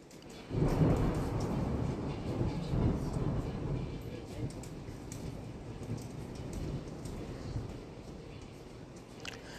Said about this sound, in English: thunder and lightning, with winds, tornadoes, tornado watches around the area. Of South Carolina.